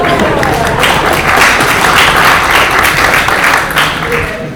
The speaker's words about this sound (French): On applaudit encore, hein.